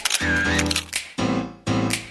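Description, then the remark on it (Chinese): Three crisp camera shutter clicks, spaced unevenly over about two seconds, each a sharp snap that sits on top of a steady, bright musical tone. “咔嚓咔嚓，美好的事物就用相机拍下来。”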